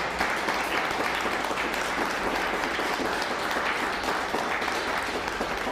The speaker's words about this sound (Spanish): Fuerte aplauso a Rose.